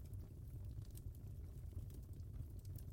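Wood burning in a fireplace: a soft, steady low roar with faint, scattered crackles and pops, heard quietly and continuously with no voices.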